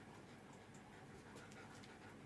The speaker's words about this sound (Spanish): mi perro, se está subiendo a la silla. es un perro grande, ¿vale?